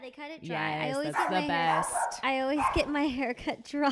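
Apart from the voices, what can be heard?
dog barking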